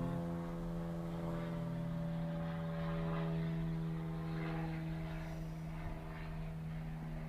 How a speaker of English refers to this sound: um, dang, I'm losing my train of thought with these flights, with this plane, this plane.